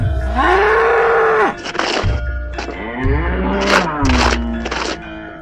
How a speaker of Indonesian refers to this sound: Kedatangannya langsung menarik perhatian banteng ganas itu. Banteng itu mendengus dan siap menyeruduk dengan tanduknya yang tajam.